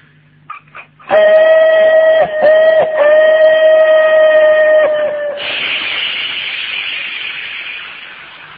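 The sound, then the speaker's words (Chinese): A voice performs a kouji (vocal mimicry) act of a train pulling out of a station: first a long, steady, high whistling tone, then a loud breathy hiss of released air, like pumping air, that slowly fades out over about three seconds. “这火车放屁，不是不是打气。”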